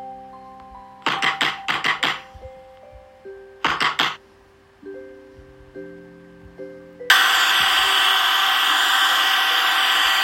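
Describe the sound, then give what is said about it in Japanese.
An electric drill, being used to try to open a door, starts up partway through and whirs loudly and steadily to the end, preceded by a few short rattling bursts, with soft sustained music tones underneath. “何か電気道ドリルで扉を開けようとしてるぜ。”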